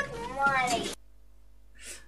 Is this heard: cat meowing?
yes